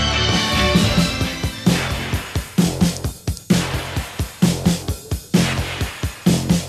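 An upbeat 1980s new wave cover song by a band that started in London, England, plays loud and full, with a punchy, steady drumbeat driving bright layered guitars or synths throughout.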